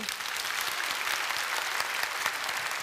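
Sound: audience applause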